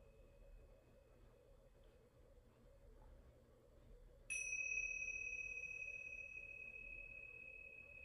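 Tingsha bells are struck once about halfway through, giving a bright, clear chime that rings on with a long, shimmering sustain over a faint low background hum. No one speaks.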